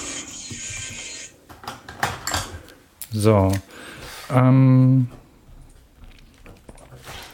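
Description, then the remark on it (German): Scratchy strokes of a pen moving across paper as someone writes down a note, with a few quick ticks and taps between strokes, broken up by a couple of short spoken interjections. “Da nehme ich mal voll oldschool einen Stift und schreibe mir das auf.”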